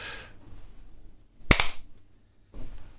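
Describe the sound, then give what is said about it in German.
Two quick, sharp hand claps in rapid succession, loud and crisp, preceded and followed by soft rustling noise with no talking. “schnell klatschen.”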